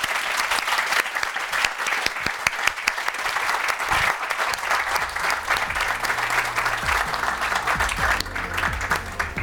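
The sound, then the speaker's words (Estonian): An audience claps steadily for several seconds, a dense, continuous patter of many hands at a fairly loud level, with a few faint voices mixed in toward the end. “selge, aga teeme suure aplausi, et”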